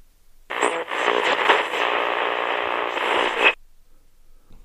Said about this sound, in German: Doch, doch, da knirscht etwas. An der Tür. Ich seh mal nach.